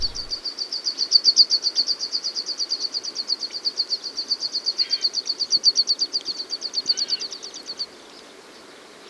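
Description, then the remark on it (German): A snow finch calls in a long, rapid series of high, evenly spaced chirping notes, steady in rhythm for several seconds before stopping abruptly, with no talking. “Und der Schneesperling freut sich. Also, unser Vogel der Woche.”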